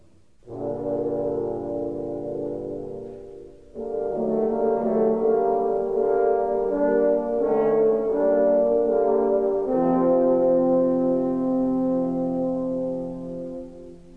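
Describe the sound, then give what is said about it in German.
In an orchestral piece, three horns play a dark, menacing theme that stands for the wicked wolf, in loud, sustained brassy chords, with a brief pause before the phrase swells again and then fades out. No voices are heard. “und den bösen Wolf erkennt ihr an drei drohenden Hörnern.”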